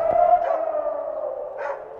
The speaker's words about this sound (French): À deux reprises, les sirènes ont retenti dans Jérusalem hier. Soudain, le silence